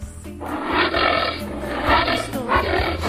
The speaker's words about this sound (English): the answer was. Anteater. Anteater, correct. That is a weird sound, though.